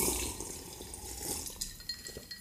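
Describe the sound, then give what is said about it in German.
Slurping of a gin and tonic from a glass: a wet, hissy stream of liquid sound with a few sharper clicks and sips toward the end, with no talking. “Schlürf nicht so.”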